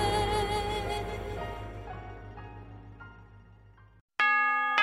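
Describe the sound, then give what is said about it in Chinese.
A large bell chimes to mark the New Year, from 2014 into 2015: a rich, ringing tone that slowly fades over about four seconds, a brief silence, then another loud strike rings out. No one speaks. “新年的钟声已经敲响，新年的日历已经翻开，二零一四已成过往，二零一五崭新开启”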